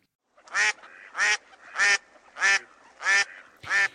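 A duck quacks six times in a steady, evenly spaced rhythm, each call loud and nasal, with brief pauses between and no other sounds.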